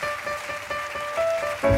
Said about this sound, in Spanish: Así que ahí van a escuchar aplausitos.